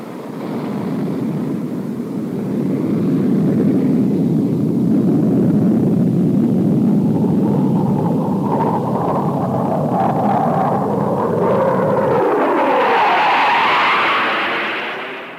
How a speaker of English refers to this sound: What did I tell you? An airplane without wings. If I played that clip for you and didn't tell you that it was a car, you would have said, it's just a jet. It's just a jet flying by.